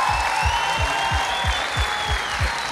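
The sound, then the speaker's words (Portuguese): An audience applauds steadily throughout, a dense, even wash of clapping, with a regular low thumping pulse beneath it, about three beats per second, like rhythmic stomping or a beat. “Vamos aplaudir, gente.”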